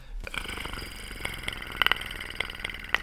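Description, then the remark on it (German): A person imitates a movie creature's rattling growl: a low, continuous purring rumble punctuated by sharp clicking bursts, fairly quiet, with no speech. “ich mache jetzt einen Hauptcharakter nach und du musst raten, um welchen Film es sich handelt”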